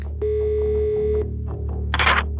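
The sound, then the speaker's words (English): A satellite phone call rings once through the line: a steady electronic ring tone lasting about a second, thin like a handset earpiece, followed by a short burst of noise. “I call the number on the satellite phone. It ring.”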